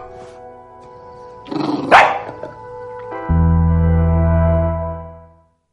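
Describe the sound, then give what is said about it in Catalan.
A dog from a film gives a short burst of loud barking partway through, set against a sustained tonal musical backdrop that swells afterward and then fades out. “Bé, ja heu sentit doncs, els tres protagonistes de la pel·lícula, el gos, que ha sonat al final,”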